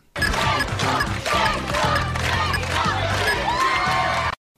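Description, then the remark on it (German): A large studio audience of a 1990s TV game show chants "Cento" loudly in unison, cheering a prize wheel stopping at 100: a dense roar of voices with rhythmic surges that fills the whole few seconds before cutting off abruptly. “Deswegen rief das ganze Publikum Cento, Cento, Cento.”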